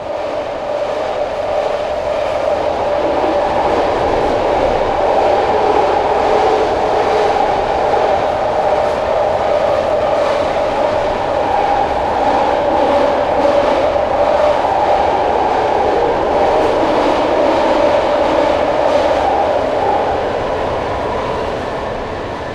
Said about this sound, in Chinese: 这种噪声的真正的来源呢，其实是车轮和轨道摩擦时候发出的噪音，尤其是当地铁开过 San Francisco Bay Bridge，也就是从 Oakland 到旧金山的这条这座大桥下方轨道弯曲的这一段时，摩擦声尤其尖利。刚才您听到的就是。